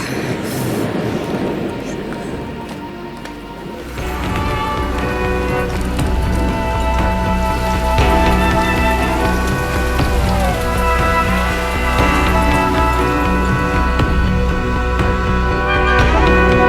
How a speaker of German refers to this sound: Uiuiui, jetzt geht das Gewitter los.